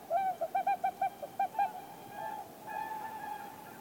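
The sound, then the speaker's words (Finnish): A tawny owl hoots at night in calm, still weather: a quick run of about eight short, evenly spaced notes, then longer wavering hoots trailing off, heard alone in a quiet setting. “kuinka kaukaa tuo lehtopöllö sitten oikeastaan kuuluu?”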